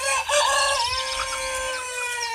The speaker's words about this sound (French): Les uns crient cocorico très haut, les autres gloussent et caquettes très bêtes.